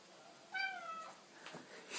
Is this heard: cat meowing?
yes